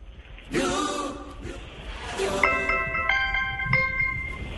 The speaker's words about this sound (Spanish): Una alarma de despertador de un celular.